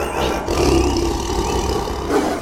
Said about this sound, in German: Den Tiger.